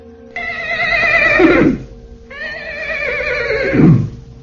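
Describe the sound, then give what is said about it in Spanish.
A horse neighs loudly twice in succession, each whinny a long, quavering call that trails off into a lower snort. Clear, with no voices. “El monstruo aquel tomó la forma de una bestia, de un caballo.”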